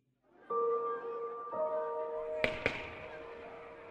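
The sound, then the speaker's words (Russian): Two sharp, sharp-edged gunshots crack in quick succession amid sustained, loud shouting voices in a park at Tsarskoye Selo, with the yelling beginning first and continuing after the shots. “Разбудили цесаревича громкие крики в парке и выстрелы – первое мгновение он даже не мог понять, где находится – в Могилеве.”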